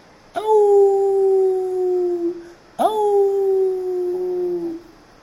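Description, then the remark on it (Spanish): Two long, wavering wolf-like howls, each holding a steady pitch for about two seconds before trailing off, voiced by children, brothers howling along with wolves at a zoo to say goodbye to them. The howls are loud and come back to back. “Antes de salir a ver a los osos, los hermanos se despidieron de los lobos aullando con ellos.”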